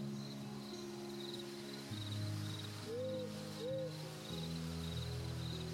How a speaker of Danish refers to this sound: Og I alle sammen begynder at høre den første græshoppe, der begynder at larme.